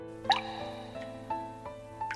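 Raindrops fall one after another onto a lake surface, each a soft, pitched plink, the first brighter and louder, then several gentler drips at an unhurried, irregular pace over a steady low background hum.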